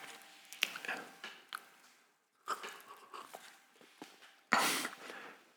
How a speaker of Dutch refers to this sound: Even een slokje.